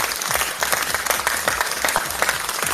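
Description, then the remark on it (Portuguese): A small group applauds steadily, the claps dense and overlapping at moderate loudness, with no talking over them. “Parabéns. Palmas, palmas.”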